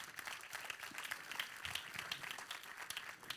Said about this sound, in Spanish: Le da un fuerte aplauso a la palabra de Dios en el día de hoy.